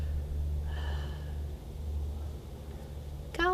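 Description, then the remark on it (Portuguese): A breathy rush of air as rapé snuff is blown into a nostril with a self-applicator fills the first second and a half. After a quieter stretch, a sudden sharp gasping inhale comes right at the end. No one speaks. “Soprou, a pessoa, você recebeu o rapé”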